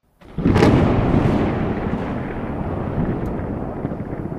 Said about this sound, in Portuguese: Chuva, não precisa raio, tá bom? Chuva. Pronto, agora sim.